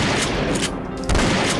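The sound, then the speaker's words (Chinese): Three quick, loud shotgun blasts crack out in a steady rhythm, each a sharp, harsh blast, fired in a swamp over a dense, noisy rumble that continues throughout. “然后趁着沼泽蛇王还没有反应过来的时候，就对着他连开三枪，”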